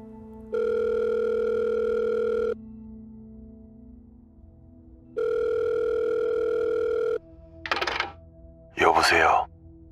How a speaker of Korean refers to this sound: 마치 몇 번이나 걸어본 것 같이 익숙하게 손가락이 번호를 눌러간다.